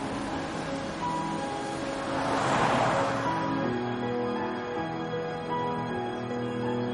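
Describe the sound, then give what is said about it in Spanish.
Sandro's car drives steadily between fields, its engine a low, constant hum beneath a broad rush of road and wind noise that swells briefly before settling back to an even drone. “El coche de Sandro circula entre campos.”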